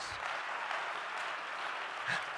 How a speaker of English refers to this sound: Can we clap our hands to Him and give Him praise?